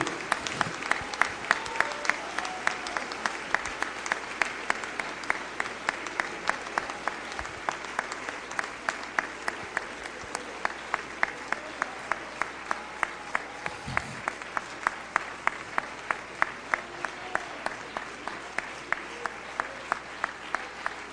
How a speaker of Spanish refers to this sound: Y ahora vamos a darle ese aplauso al Rey en esta hora. Batí las manos con voz de júbilo.